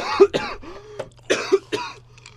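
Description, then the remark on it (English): A person coughs several times in a quick, uneven burst, with a harsh throaty rasp and a short clearing sound between, fairly loud, with a faint hum underneath. “Can you turn off my mic real fast? I got a cough.”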